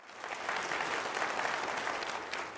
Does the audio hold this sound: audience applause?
yes